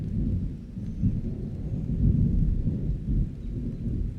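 A thunderstorm with strong wind and steady heavy, dense rain, with a deep, continuous rumble of thunder swelling and fading, loud, with no voices.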